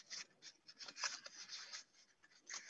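Crisp paper rustling and sliding as a square sheet's left edge is folded over to the right edge into a rectangle and pressed flat to crease it, with a few sharper crinkles and quiet scraping strokes, no voices.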